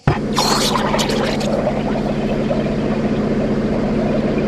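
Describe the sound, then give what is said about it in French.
A brand-new boat engine with working fuel injection catches with a sharp burst, then settles into a steady, loud, throbbing idle that runs without a break, filling the whole clip. “C'est bon, l'injection fonctionne, la carburation reprend, les culbuteurs sont bien en face, tout est réglé Bon, enfin, je me disais moteur tout neuf, dans son carton et tout, quoi”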